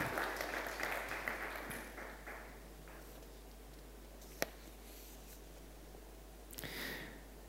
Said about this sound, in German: Ist das nicht ein Applaus wert? Ist das nicht eine Ehre für Gott wert?